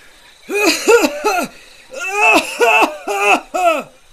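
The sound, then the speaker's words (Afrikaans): A voice imitates a hippo, Seekoe, coughing suddenly after an owl tickles its throat with a feather: three voiced, throaty bursts, a short pause, then four more, loud with no other sounds around them. “Sekoe gegel eers net, maar toe hoes hy skielik.”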